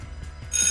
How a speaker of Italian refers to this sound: Allora suona la campana, suona la campana, non è ricreazione che è fine il tempo a nostra disposizione.